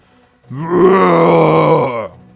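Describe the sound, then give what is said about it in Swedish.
A person voices a drawn-out, guttural, inhuman roar imitating a troll, loud, sustained for about a second and a half before cutting off. “Ljudet av ett vrål. Ett omänskligt vrål.”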